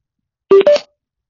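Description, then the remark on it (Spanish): A short two-note electronic chime from a Bluetooth speaker in Bluetooth mode connecting to a previously paired phone: a lower tone followed quickly by a higher one, sounding clearly and alone against silence. “Aquí hizo ese, ese sonidito porque se conectó a un teléfono que ya estaba conectado anteriormente.”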